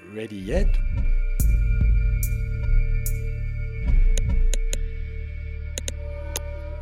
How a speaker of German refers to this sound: Was als erstes auffällt, sind diese lauten Knackser, die man hört. Diese sogenannten Kavitationspulse entstehen, wenn sich Gefäße füllen mit Luft schlagartig.